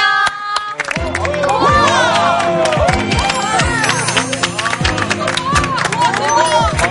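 After a brief quiet start, a studio audience on a Korean show breaks into sustained, loud applause mixed with cheering and excited shouts, welcoming the guest, actor Choi Deok-moon; the clapping dense and continuous right up to the end.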